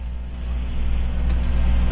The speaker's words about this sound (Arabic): انت تسوق يا … اي والله اسوق